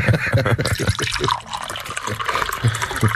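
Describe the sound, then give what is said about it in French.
Tap water splashes and gurgles steadily as it is poured into a glass, a continuous liquid rush with faint low murmurs of voices in the background. “L'eau du robinet pour toi.”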